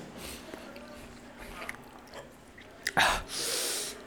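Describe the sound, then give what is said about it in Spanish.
Quiet chewing of spicy food with soft wet clicks and smacks, followed near the end by a sudden sharp intake and a loud, breathy exhale as it is swallowed. “Me lo tragué.”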